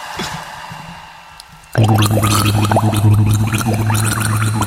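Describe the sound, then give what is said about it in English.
After a quiet, faintly rustling start, loud, steady gargling bursts in and bubbles on continuously with a low throaty drone and rapid burbling water, a person mimicking a mermaid's watery voice. “impression of a mermaid.”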